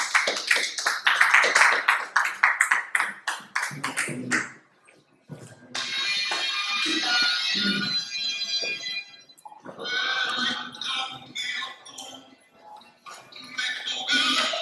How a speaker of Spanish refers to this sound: Amén. Dale un aplauso a Dios y ponte de pie familia.